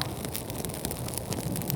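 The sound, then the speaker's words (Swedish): A small campfire of dry birch bark crackles and catches quickly, with sharp pops and snaps scattered over a steady, rushing hiss; fairly quiet, with no voices. “Fantastiskt, vad fort det tar sig. Ja, precis. Näven var fin och torr.”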